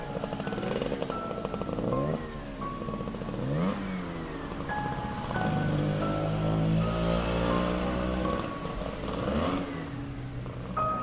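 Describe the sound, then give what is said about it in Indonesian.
A motorcycle engine revs repeatedly as it sets off from home, pitch rising and falling through several gear changes as it pulls away, loud, with a rough, rattling mechanical texture throughout. “Akhirnya, mereka berdua pun berangkat dari rumah masing-masing dengan mengenakan sepeda motor.”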